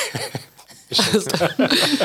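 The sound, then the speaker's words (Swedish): A couple of abrupt coughs and sniffles come in short bursts, mixed with some breathy, laugh-like vocal sounds, with a brief quiet gap between them. “Host och snörvel.”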